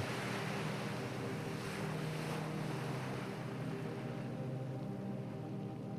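Steady roar of waves of the wide ocean breaking against rugged rocks nearby, below huge rocky cliffs, a dense continuous wash with low rumble and brief surges, no voices, wind adding a faint hiss throughout.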